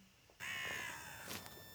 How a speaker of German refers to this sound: Die Galgenvögel sind Raben, passt gerade sehr schön dazu.